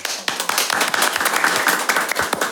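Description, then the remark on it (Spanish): A burst of audience applause welcoming a guest speaker: many hands clapping in a dense, steady patter with sharp individual claps standing out, loud and sustained throughout before tapering slightly at the end. “Un aplauso, por favor.”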